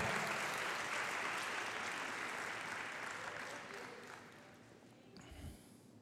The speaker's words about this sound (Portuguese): Palmas ao Senhor. Ele merece essas palmas.